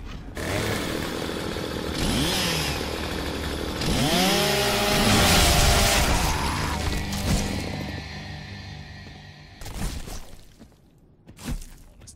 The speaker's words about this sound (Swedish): Ja, det är mycket gore. det är mycket, du kan gå upp liksom, med en motorsåg på ditt vapen och liksom nästan såga ansiktet av någon. Nästan.